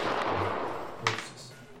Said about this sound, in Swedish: Ja, han skjuter honom i eh, axeln så han eh, snubblar till.